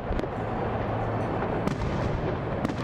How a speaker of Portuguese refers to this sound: Seis mil fogos de artifício brilharam no céu de Berlim, na Alemanha, iluminando o portão de Brandemburgo